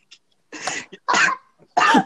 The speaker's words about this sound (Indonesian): Bukan anjing batuk gua. Terus batuk.